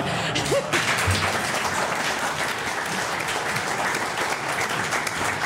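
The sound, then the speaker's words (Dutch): An audience breaks into steady, dense applause for a question just asked, many hands clapping at a constant loud level for several seconds with no pause, a faint voice briefly audible near the start. “Dat is de eerste vraag die applaus krijgt.”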